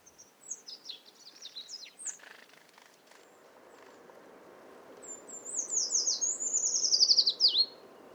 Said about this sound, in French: Et pour finir, trois phrases du chant d'un grand des bois.